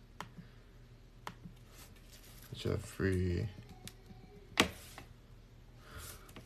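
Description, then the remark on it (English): Scattered, irregular clicks of keys being pressed on a computer keyboard, fairly quiet, with a brief spoken word in the middle, as a search for the Jeffrey Dahmer Netflix building scene is typed in to look for it on YouTube. “Oh god, I hate even typing this in.”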